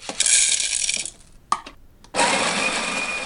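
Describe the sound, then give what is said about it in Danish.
A dense rattle of coffee beans for about a second, a short pause and a single click, then the loud, steady whirring grind of a coffee grinder running to the end. “Men ikke du straks gættede, at det var kaffebønder, som raslede på noget, og så blev kværnet på en kaffekværn?”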